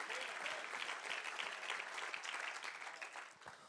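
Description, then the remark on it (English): An audience claps together for God in sustained, dense applause, many hands producing a steady crackling roar that holds its level for several seconds before easing slightly at the end. “Come on, if you believe it, give him a good hand clap in this place.”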